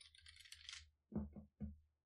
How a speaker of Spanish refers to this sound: Mira, yo estoy grabando con un micrófono de condensador. Em, al tocar la mesa, escucha. Al tocar el teclado.